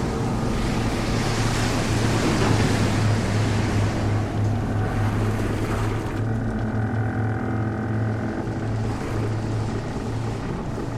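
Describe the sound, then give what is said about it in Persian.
Loud, continuous rush of churning water as a submarine breaks the ocean surface at ten in the morning beside a merchant ship, over a steady low engine drone; the hissing spray eases somewhat partway through while the hum carries on. “اما ساعت ده صبح آرامش اقیانوس و صدای آشنای پیش روی سکشتی با صدای شکافتن آب به هم رفت”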